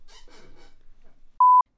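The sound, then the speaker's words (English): A chair squeaks and creaks in a few quick, scratchy bursts, followed after a pause by a short, steady electronic beep. “Those chairs.”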